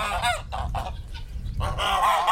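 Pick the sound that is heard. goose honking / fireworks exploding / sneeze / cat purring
goose honking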